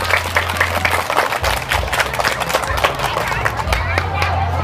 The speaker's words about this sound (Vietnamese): thì các cháu hãy dành một tràng vỗ tay thật lớn để cam kết